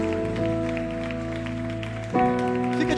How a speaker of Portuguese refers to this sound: E quem pode, numa ação de gratidão, dar o melhor aplauso ao Rei dos Reis, Senhor dos Senhores, ao Pai Todo-Poderoso, glória a Deus.